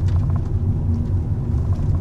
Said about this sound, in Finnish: Nämä autot, työkoneet on kaikki ilmastointia ja sitä il- tässäkin autossa on tällä hetkellä meillä ilmastointi päällä, että tämä niin. olisi muuten aika kuuma paikka, että ilmastointia joudutaan käyttämään